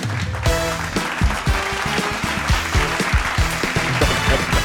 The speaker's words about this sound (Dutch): Een applaus voor Mr. Podcast